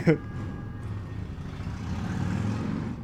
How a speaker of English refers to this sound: he's he's outside on a motorcycle, and he I look out the window, and he just looks at me, and then he like flips down sunglasses and motorcycles. Does a couple donuts.